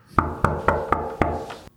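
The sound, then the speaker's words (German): Five evenly spaced knocks on a door, sharp and fairly loud, with a steady rhythm and a short ringing tail after each rap, and no voices. “Ah, da klopft es an der Tür.”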